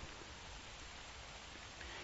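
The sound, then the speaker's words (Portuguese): A steady, dense hiss of heavy rain pours down without pause over the sea at the beach of Ecaú, a fishing village in the Nordeste, blending with a continuous wash of sea noise. The rain is unbroken, and no one speaks. “E lá atrás está o mar numa chuvarada danada.”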